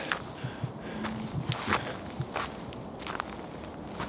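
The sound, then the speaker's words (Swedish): Footsteps crunch and scrape along a slippery, icy outdoor path toward the open sea, irregular, with occasional sharper slips and a steady hiss of wind blowing about 5-10 metres per second on a February day around zero to minus two degrees. “Den är väldigt halkig som ni hör men eh, jag knallar vidare här.”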